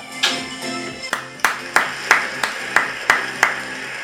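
Brief applause made of about nine sharp, distinct handclaps in a steady, even rhythm, fairly loud, with no voices over them.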